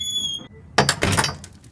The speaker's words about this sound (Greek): Ο Λύκος πάτησε το μάνταλο και η πόρτα άνοιξε.